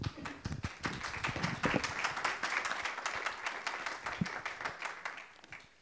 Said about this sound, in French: alors il vaut mieux applaudir à la fin, hein, parce que je n'ai pas encore commencé. C'est bien en tout cas, c'est encourageant.